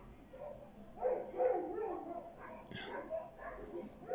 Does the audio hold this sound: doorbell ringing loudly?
no